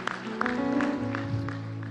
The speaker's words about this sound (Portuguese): Aplaude glória Ele por isso, aplaude. Glória a Deus.